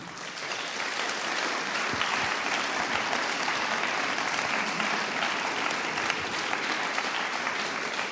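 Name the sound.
audience applauding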